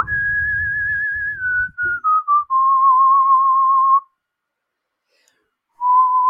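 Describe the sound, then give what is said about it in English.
Someone whistles a tune loudly, holding long wavering notes that step downward, then pauses for about two seconds before starting another note. “Is my whistle, copyrighting.”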